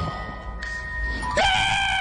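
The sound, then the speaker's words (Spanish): A person screams in a sustained, high-pitched wail that swells louder partway through and holds steady to the end, fairly loud, with no talking. “No, porque grita no, así?”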